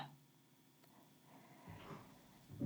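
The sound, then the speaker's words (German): A faint, drawn-out wooden creak, like a floorboard or door straining overhead in a dark house at night, rising briefly out of a quiet hush with no one speaking. “Dann höre ich plötzlich ein Knarzen über mir.”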